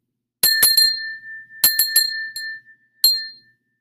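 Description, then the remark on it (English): A crystal bell from the Black Forest in Germany, rung for meditation, rings in several quick bursts of clinking strikes, its clear, high tone lingering between them, then one final ring fading out. Bright, with no talking. “It's a crystal bell from the Black Forest. And when I ring this,”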